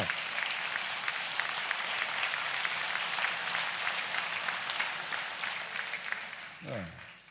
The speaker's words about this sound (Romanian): Uitați-l, vă rog frumos, ridicați-l în picioare, aplaudați-l acum.